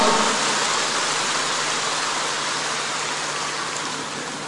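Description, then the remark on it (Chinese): Warm, enthusiastic applause from an audience: a dense, steady wash of clapping that holds strong for several seconds and tapers only slightly toward the end, with no voices over it. “鼓掌鼓得很热烈，好像你们都很开悟一样。”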